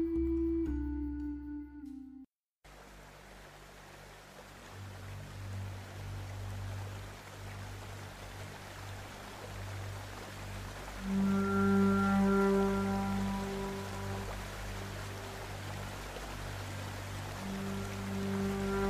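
Water runs steadily in a stream, a continuous gentle rushing that fills the whole clip, with soft sustained musical tones drifting in over it partway through.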